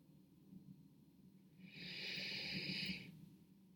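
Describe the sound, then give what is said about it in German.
During a guided breathing exercise, a slow, deep breath is drawn through the nose, followed by a longer airy exhale through the mouth, fairly quiet, with no one speaking. “Lass uns gemeinsam nochmal atmen.”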